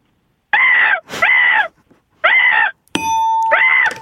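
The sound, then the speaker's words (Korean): A woman calling in by phone imitates a crow, a 'human crow' impression, giving four loud, harsh, nasal caws in a steady rhythm. A bright metallic ding rings out just before the last call. “자, 인간, 여성분인데 괜찮아요? 인간 까마귀?”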